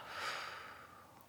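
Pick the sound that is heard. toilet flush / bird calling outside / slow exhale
slow exhale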